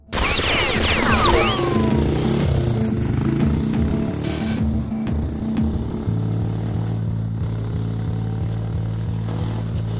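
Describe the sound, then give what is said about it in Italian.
The engine of a Giulietta car, stopped against a wall after a shooting, idles with a steady, droning rumble that holds for the whole stretch amid silence, shifting slightly in pitch partway through, with a few high chirps near the start. “A parte il motore dell'auto che è rimasto acceso, è tutto silenzio e nessuno si è accorto di niente.”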